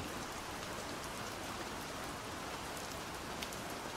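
Steady rain pours down in a dense, continuous hiss, even throughout, with occasional sharper drops ticking against a surface.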